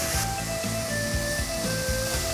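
Quickly stir-frying shredded burdock and shredded carrot with a little olive oil in a flat-bottomed pan: a steady sizzle with a repeating, rhythmic scrape-and-toss pattern underneath, several strokes in quick succession. Soft tonal hum runs through it; no one speaks.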